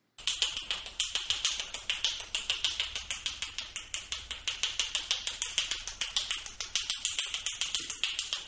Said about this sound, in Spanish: el anterior récord mundial de mayor cantidad de chasquidos de dedos en un minuto